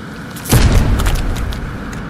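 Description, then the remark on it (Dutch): A sledgehammer smashes into a bag of wet yeast with a fly on it, with the tunnel and lamps switched on, one heavy, deep thud followed by a long rumbling, splattering decay that fades slowly. No one speaks. “Peer, kijk goed naar de zak natte gist. Ja, er zit een vlieg. Daar komt de moker.”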